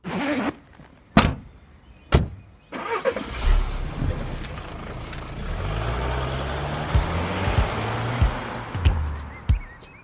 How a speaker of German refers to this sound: steigen die beiden ins Auto und fahren los.